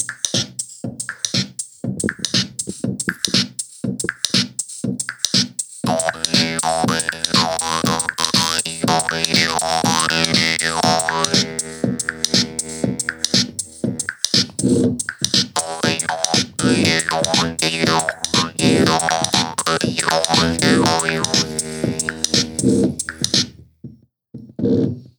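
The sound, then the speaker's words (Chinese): A jaw harp, a copper-like metal reed instrument, is played for an electronic sound with added rhythm: a buzzy, electronic-sounding twang pulsing in a steady rhythm while its overtones sweep up and down for about twenty seconds, loud and without any talking. “然后呃，用这个的话，它其实国外有很多人拿它来做比较电的声音。那我们可以试试看，加上一点节奏。”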